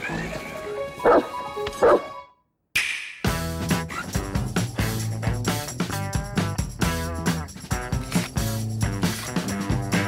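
A small dog gives two sharp, high-pitched yaps about a second apart, followed by a brief silence before music starts and continues steadily.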